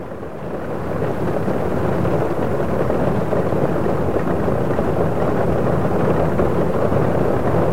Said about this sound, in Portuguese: E Deus fechou a porta da arca, e a chuva caiu.